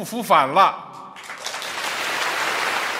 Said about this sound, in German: Dafür gab es natürlich Applaus zum 100. Jubiläum der Kommunistischen Partei vor zwei Jahren.